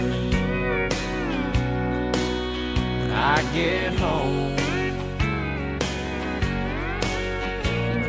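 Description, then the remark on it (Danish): A country song plays loud, a male singer's clear, crisp voice carried over a full band with steady drum hits marking the beat. “han har den her sprøde stemme, som lyder sådan her, når han synger.”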